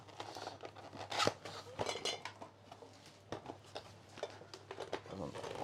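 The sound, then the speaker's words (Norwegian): Crinkling, scraping and tearing as the tape on a box is cut and the packaging pulled open, with sharp irregular crunches and rips, and faint voices murmuring underneath. “Er det knivo, eller? Ja, jeg tror det. er teiper litt av den. Sette på noe pausemusikk mens vi åpner her.”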